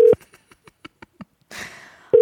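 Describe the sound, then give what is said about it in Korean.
A telephone call sound: a steady electronic tone, a run of soft, evenly spaced clicks, a brief hiss of noise, then the tone returns, with no answer and no voices. “어, 전화를 받지 않으십니다.”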